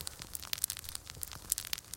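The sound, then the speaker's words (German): A small foil-filled squeeze ball crackles as it is slowly turned in the hand, giving a dense, irregular stream of sharp, bright snaps and rustles used as a fire sound effect for the Augsburger Puppenkiste puppet TV productions. No one speaks. “Kann man wunderschönes Feuer machen, wenn du den jetzt schön langsam hier in der Hand drehst.”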